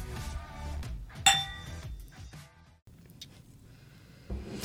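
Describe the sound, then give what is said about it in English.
Glasses clink together in a toast: one bright, sharp chime that rings briefly, with fainter tinkling around it over a low, muffled background. “So raise your glass. And cheers to Jesus.”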